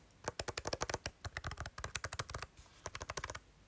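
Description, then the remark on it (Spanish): Soft, quiet key presses on a Perkins-style braille keyboard, tapped in quick irregular bursts with brief pauses between, muted with no voices. “Este es el sonido que hace, veis que es muy eh, silencioso, pero son teclas muy buenas, son suficientemente grandes para que quepa el dedo, son más grandes que las de la Orbit.”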